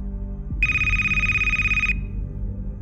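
A telephone rings in one steady, high electronic tone lasting just over a second, loud over a low rumbling background with no talking.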